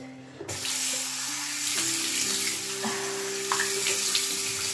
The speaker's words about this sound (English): Yeah, just one splash of cold water is enough.